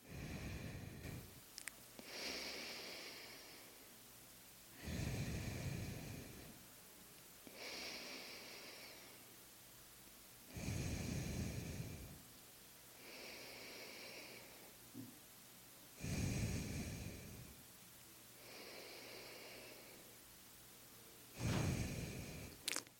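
Slow, deliberate alternate-nostril yoga breathing, starting with an exhale through the left nostril: about eight long breaths alternating exhale and inhale in a steady rhythm, each airy and audible, with brief quiet pauses between and no talking.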